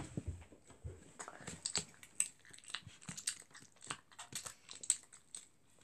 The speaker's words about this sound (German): Der rote ist noch lecker. Mhm. Das passt gerade. Okay, ASMR kauen von mir